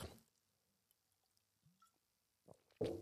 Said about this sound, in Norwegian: Jeg må bare drikke litt her.